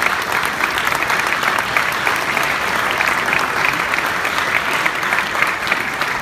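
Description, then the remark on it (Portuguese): Audience applause at a concert: a steady, dense wash of many hands clapping, loud and sustained throughout with no pauses or voices standing out. “Que eles vão começar. Sim. As, As palmas.”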